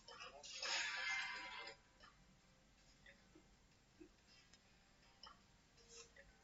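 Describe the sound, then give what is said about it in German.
A timer ticks faintly with sparse, soft clicks after a brief burst of hissing noise near the start, the whole scene quiet. “Nee, komm, komplett. Ticken muss sein.”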